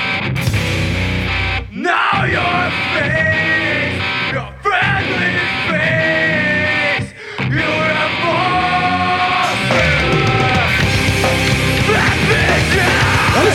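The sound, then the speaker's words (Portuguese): A loud, dense hardcore song with distorted guitars, pounding drums and harsh screamed, dog-like vocals, broken by a few abrupt stops before the band crashes back in. “Porque, assim, o vocal é tipo cachorro, tá ah, ligado?”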